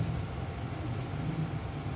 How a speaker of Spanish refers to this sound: está lloviendo, ¿verdad? Y se está mojando, qué sé yo, el, se están mojando las despensas que están en el camión.